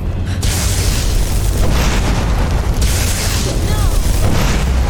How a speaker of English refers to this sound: Lydia, you walked in front of my fireball. You don't want to do that.